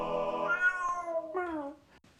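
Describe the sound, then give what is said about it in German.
A short jingle of cat meows played live at a community event: a long, drawn-out meow followed by a second, falling meow, loud with no talking, ending in a brief quiet tail. “die die Jingles live für die Community hier am Community Day parat hat. Der Kater der Woche.”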